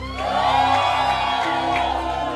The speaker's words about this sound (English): You want to give the Lord a clap offering as you take your seat. Hallelujah. Oh, give the Lord a shout.